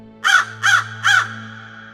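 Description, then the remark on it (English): Three harsh, raspy crow caws in quick succession, loud, over a steady low droning hum that continues after the calls end. “God had to warn these hardened sinners through a mystical vision that he sent to Don Bosco, which involved demonic crows.”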